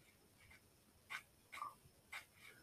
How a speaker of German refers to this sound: Da war ein Wolf.